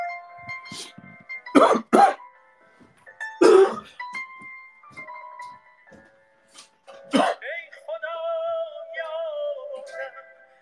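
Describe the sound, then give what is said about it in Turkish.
Harsh coughing from a throat tickle caused by a bad flu comes in short bursts: a quick pair of hacks, another cough a moment later, then a final throat-clearing cough, all over quiet music playing in the background. “Çünkü çok kötü grip şey tuttu. Gıcık tuttu geleceğim hemen.”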